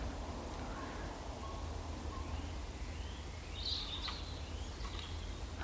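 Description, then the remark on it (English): Corvids call in a scattered chorus as they settle to roost, a few harsh caws rising faintly above a steady outdoor rumble and hiss, with no voices. “I do love to watch a corvid if you want a bird with lots of character.”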